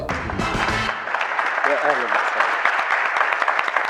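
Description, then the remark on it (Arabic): A crowd applauds the entrance of the guest Small Cappuccino on a show with dense, steady, loud clapping that fills the whole moment, while a few voices call out over the noise. “بس تفضل يا حبيبي تصفيق الجداد ذا”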